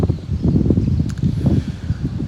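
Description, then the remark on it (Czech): Strong wind roars steadily across desert dunes, a continuous low buffeting rumble that gusts and swells without pause, loud, with no voices. “Byl to boj, boj s autem, boj s dunama, boj s větrem, protože tady šíleně fouká.”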